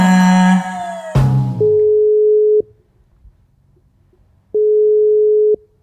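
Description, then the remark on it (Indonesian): A phone line tone: after a brief burst of electronic noise, a steady single-pitched beep sounds for about a second, pauses, then repeats—an unanswered call signal, loud and clear with no voices. “Tidak mengangkat, Bung.”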